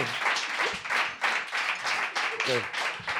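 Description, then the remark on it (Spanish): A crowd applauds steadily and loudly for a few seconds, a dense wash of many hands clapping, with a few voices briefly audible through the noise. “aplaudir, aplaudir. Ayúdame, ayúdame, por favor.”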